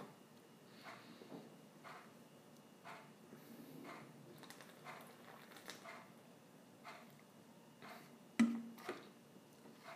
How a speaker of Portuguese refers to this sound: Esse barulho do relógio incomoda vocês? se incomoda, deixa aí no comentário. Esse barulho me incomoda. Que eu esqueço dele aí, às vezes eu lembro. Pior que eu tinha tirado ele daqui para gravar, mas eu não gravei no dia que eu tirei.